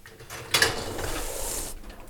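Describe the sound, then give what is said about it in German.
A dishwasher is opened to load a filter mesh: a sharp clack, then a sustained rolling, rattling scrape of the rack sliding out, ending abruptly. No one speaks. “Ich glaube, das tue ich einfach mal in die Spülmaschine”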